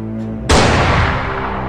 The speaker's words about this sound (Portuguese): e vocês ouvem um tiro